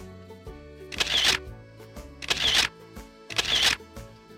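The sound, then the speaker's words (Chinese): Three camera shutter clicks arrive at a steady, evenly spaced rhythm, each a short, crisp, bright burst standing out over a soft musical background, as Peppa photographs little birds with a camera fitted with a magnifying glass. “佩奇拍了很多小鸟的可爱照片。”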